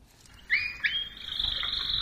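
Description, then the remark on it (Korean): A canary sings in a bright, high chirping trill that starts with a couple of quick rising notes, then runs into a sustained warbling song, clear with no voices. “새 중에서도 아주 암수 사이가 좋다는 카나리아, 네, 카나리아 소리랍니다.”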